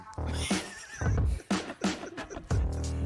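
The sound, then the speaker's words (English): A chair creaks loudly, letting out several strained, squealing groans in quick succession, each with a low thump beneath it, almost like a whinny. No one speaks. “It was a freaking chair. It does sound like a chair.”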